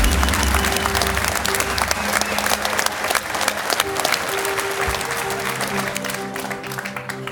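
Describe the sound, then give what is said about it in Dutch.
Sustained audience applause, a dense crackle of many hands clapping steadily for several seconds, with a low hum and faint crowd noise underneath, easing slightly toward the end. “Eén groot applaus voor jullie.”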